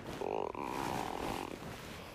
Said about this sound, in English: Sorry, that was my stomach. Um, anyways, it's probably gonna make some more rumblies.